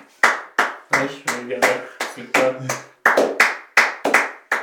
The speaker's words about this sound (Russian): Я начинаю хлопать.